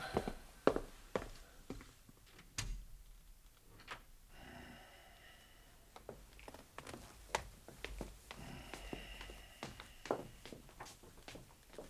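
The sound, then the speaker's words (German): Quiet footsteps and small taps shuffle while a door that always squeaks is opened very slowly, creaking with a drawn-out, thin squeal partway through. “Die Tür quietscht immer so.”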